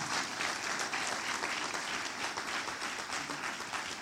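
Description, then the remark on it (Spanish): A church audience breaks into loud, sustained applause for God, a dense wash of many hands clapping steadily for about four seconds with no pauses and no voices on top. “Alguien le puede dar un aplauso fuerte a ese Dios poderoso.”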